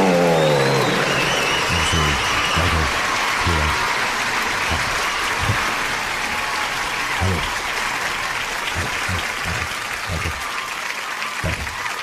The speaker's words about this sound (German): Bitte begrüßen Sie mit einem tosenden Applaus